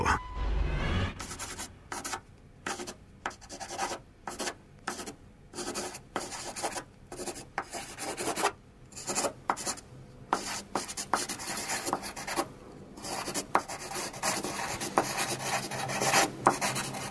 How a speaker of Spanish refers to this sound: Estamos escuchando pues cómo alguien plasma en una hoja de papel una idea y así es como empiezan pues muchos de los grandes proyectos, ¿no?